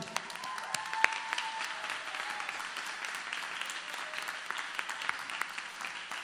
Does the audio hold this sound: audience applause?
yes